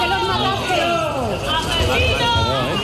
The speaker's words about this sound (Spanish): Eh, han escuchado algunos de los vecinos de Barbate a la puerta de los juzgados de la localidad gaditana cuando llegaban esta mañana los ocho detenidos por el asesinato de los dos guardias civiles en sus aguas el viernes pasado.